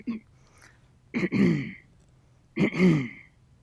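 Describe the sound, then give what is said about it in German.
A person imitates a gorilla's calming rumble, the sound that signals to gorillas that all is well: two low, throaty grunting vocalizations in a row, fairly loud, separated by a brief pause. “der Laut, um den Gorillas zu signalisieren, hey, chill, hier ist alles gut, wir sind alle, wir sind eine Family Family und so weiter, ist, ähm, warte, ich muss mit, mal gucken, ob meine Stimmbänder das mit dem Husten hinkriegen.”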